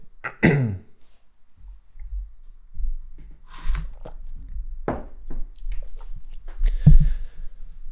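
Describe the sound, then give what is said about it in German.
A loud throat clearing by a person with a frog in the throat bursts out at the start, then quiet, scattered mouth clicks and soft rustling sounds follow, with no talking. “Hat jemand Hängen Frosch meine Hals. Stimme heute noch nicht.”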